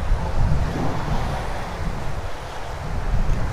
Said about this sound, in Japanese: あでもやっぱ海側は海風があるねわ今本当に海岸沿いというか、うん、海沿いだね海だ